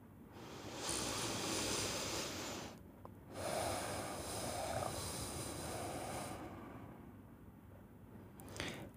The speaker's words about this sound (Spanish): Y así, nuevamente, tomando conciencia de nuestra respiración, hacemos un par de respiraciones profundas.